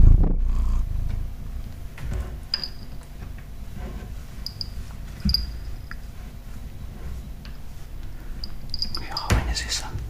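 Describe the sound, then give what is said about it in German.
A female cat purrs steadily while peacefully nudging a person with its head, a low continuous rumble that carries through the whole stretch, with a few faint high chirps and rustles in the background. “Jetzt ist sie ganz friedlich und schnurrt, stößt mich an mit ihrem Kopf.”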